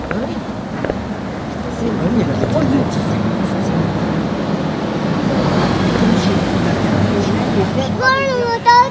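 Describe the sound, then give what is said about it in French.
A truck engine rumbles loudly and steadily for the whole stretch, a deep continuous drone with faint voices underneath and a brief high-pitched vocal sound at the very end. “Oh, le camion C'est quand même autre chose.”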